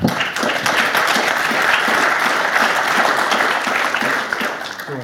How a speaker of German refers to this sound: Ich bedanke mich für die Aufmerksamkeit und manchen Lacher und manchen Beifall zwischendurch und wünsche Ihnen ansonsten noch einen schönen Tag oder eine schöne Heimreise.